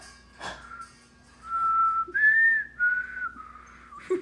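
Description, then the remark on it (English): A person whistles a short, wavering tune, the pure tone sliding between a few pitches for about three seconds, slightly breathy and unsteady, after a brief soft rustle. “trying, trying to whistle while you're smiling doesn't work.”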